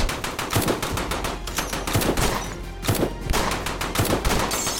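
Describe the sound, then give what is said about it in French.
Rapid automatic fire from a Browning Automatic Rifle with large-calibre ammunition, shot in bursts by Clyde Barrow at police cars: sharp loud cracks in quick succession with short gaps between volleys, no voices present. “il se met à tirer en rafale. Le Browning Automatic Rifle est une arme puissante, utilisant des munitions de gros calibre.”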